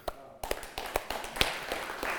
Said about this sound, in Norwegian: Eh, jeg har lyst til å klappe litt for Svene.